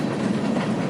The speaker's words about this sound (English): Do you recognize that sound? That is the sound of a powerful train, also called a locomotive.